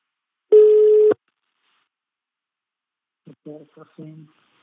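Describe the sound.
One loud, steady telephone ringing tone sounds for just over half a second as a phone call is placed, followed by silence, then a few brief bursts of someone speaking as the call is answered.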